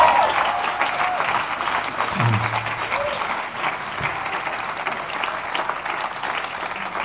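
Steady applause from a church audience at Campus Freiburg as a pastor is invited onto the stage. It is a dense, even clatter of many hands clapping that holds at a fairly loud level throughout, with faint crowd murmur underneath.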